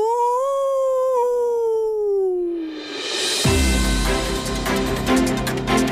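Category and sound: sound effect, wolf howl sound effect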